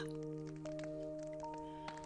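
crackling bonfire

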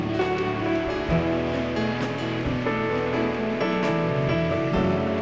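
audience applauding loudly

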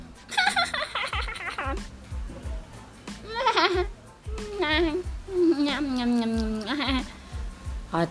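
goats bleating

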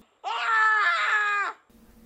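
a person screaming

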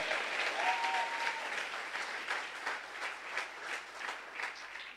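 audience applauding

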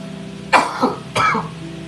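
coughing and throat clearing

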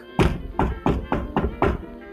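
knocking on a door

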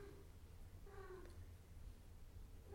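cat meowing

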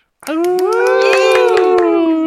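applause and cheering

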